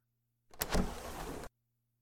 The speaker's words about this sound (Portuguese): fica aí, fica aí sentadinha que eu vou abrir a janela.